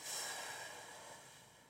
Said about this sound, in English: So, hand on heart, hand on your belly, inhale, feel your belly push out, exhale,